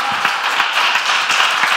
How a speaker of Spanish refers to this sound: ¿Alguien lo cree en esta hora? Por favor, que aplaudas fuerte. Vamos.